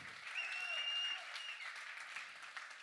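Steady audience applause, a dense patter of many hands clapping at an even, moderately loud level throughout, with a faint whistle-like tone briefly riding above it early on.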